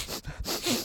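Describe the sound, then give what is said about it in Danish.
A person makes a few quick sniffing sounds with their voice, short noisy inhales in a rapid series, imitating a nose sniffing around. “og vi kan lugte noget. Det lyder sådan her.”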